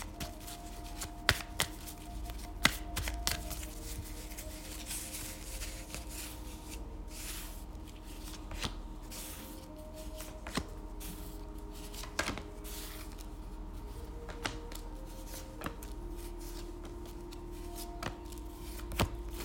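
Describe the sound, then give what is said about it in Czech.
Tarot cards being shuffled for a partner reading, a soft continuous riffle of paper with scattered sharp clicks and taps, steady over a low background hum, with no voices. “Já už si dívám na vaše fotky, míchám u toho karty a my se spolu podíváme, co nám Tarot poví o vás dvou.”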